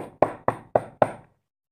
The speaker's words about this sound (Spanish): Bienvenida al castillo de Juguetelandia, exclamó el hada mientras acompañaba a Luisa a la entrada y llamaba a la gran puerta roja.